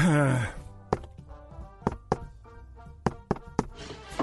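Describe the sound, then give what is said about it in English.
Sharp knocks on a wooden door tap out an uneven pattern, single raps then quick pairs and a triple, fairly loud, after a brief voice at the very start. “Happen to know it's longer than just two knocks.”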